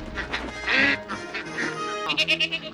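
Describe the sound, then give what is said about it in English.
Geese honk loudly, a cluster of harsh, nasal calls that overlap and then break into a quick run of rapid honks near the end, with no talking. “anyway, our hero is very mean to a pig, some geese, and a goat for a bit.”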